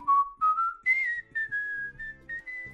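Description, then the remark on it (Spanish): A person whistles a short melody, the tone rising and then holding steady across several connected notes, with soft low background murmur beneath it. “Y sobre todo el ruido y movimiento de la multitud, alguien silbó, espera a que las nubes pasen.”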